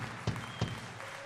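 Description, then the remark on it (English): A church audience applauds their pastor during Pastor Appreciation Month in a soft, steady patter of many hands, with a couple of sharper individual claps standing out. No one speaks. “you should be clapping.”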